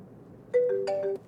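A brief phone ringtone plays over the speakers of a Toyota Camry connected via CarPlay: a few bright, overlapping electronic tones in a quick melodic phrase, moderately loud over a low background hum, with no voices.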